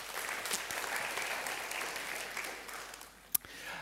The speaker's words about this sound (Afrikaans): Geef vir daai manne en vrouens hande klap toe.